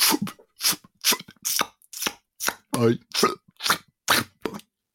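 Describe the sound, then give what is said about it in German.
A voice imitates feathers being plucked from a pigeon: about eleven sharp, breathy, ripping bursts in a steady rhythm, fairly loud, with short silences between them. “Es gibt eine Szene, wo einer Taube die Federn ausgerissen werden.”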